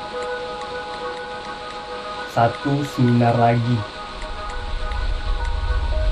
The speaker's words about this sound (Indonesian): Cuaca buruk. Jakarta hujan terus. Deras sekali.